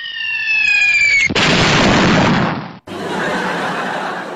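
A hydrogen balloon explosion, set off when a large hydrogen balloon that had drifted 600 km across Chongqing, Hubei and Hunan touched a man's lit cigarette: a descending whistling tone suddenly gives way to a loud, roaring blast that rumbles on, breaks off briefly, then continues as a steady hiss of debris-like noise. No voices.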